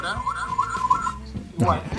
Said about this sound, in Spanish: Parece, no, es una alarma de tsunami que hay acá en el San Isidro.